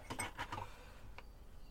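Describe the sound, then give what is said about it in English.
A spoon clinks against the inside of a mug while stirring tea with the tea bag still in it: a quick cluster of four or five light, ringing taps, then a pause and one more soft clink. Quiet, with no voices. “Uh, stirry, stirry, stirry, stirry, stirry. Get the bag out.”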